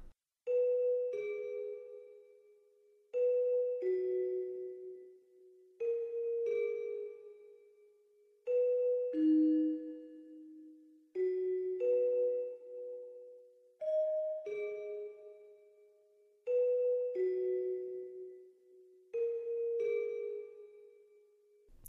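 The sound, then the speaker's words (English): A celesta plays repeated two-note figures, the root and third of each chord, bright bell-like tones falling or rising in pairs at a steady, gentle pace, clear with no voices. “it's simply playing arpeggios you could you could almost say that these aren't even arpeggios because they're only two notes long”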